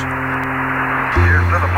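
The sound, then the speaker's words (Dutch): Steady radio static hisses throughout as Houston waits for Apollo 8 to answer its radio call. It is a dense crackling wash with a low electrical hum underneath that deepens and grows louder near the end. No one speaks. “En je hoort alleen maar... Die ruis.”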